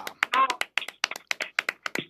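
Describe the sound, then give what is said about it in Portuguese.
Spanish-style palmas hand clapping: about a dozen sharp, crisp claps in a quick, steady rhythm, fairly loud, with a brief voice sound mixed in near the start. “receba aí palmas, palmas espanholas aí.”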